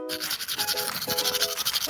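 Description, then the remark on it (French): Steady scrubbing of a toothbrush against teeth, with quick back-and-forth strokes in a fast, even rhythm for about two seconds and a faint tonal hum underneath. “Ce n'est plus le cas de nos jours, alors on brosse.”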